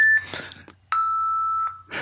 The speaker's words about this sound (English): Those are the beeps.